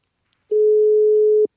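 A single steady electronic telephone ringing tone sounds for about a second while a call connects, clear and fairly loud, with silence before and after and no voices.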